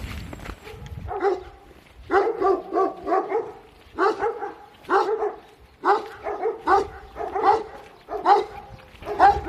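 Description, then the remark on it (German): Dogs bark repeatedly in quick bursts, several yaps overlapping in clusters with short pauses between, loud, continuing steadily throughout. “Wenn es nicht die Autos sind, dann sind es die Hunde.”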